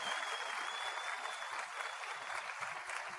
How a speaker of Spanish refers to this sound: Vamos a dar un aplauso a los oradores que han hecho un trabajo brutal, brutal, extraordinario.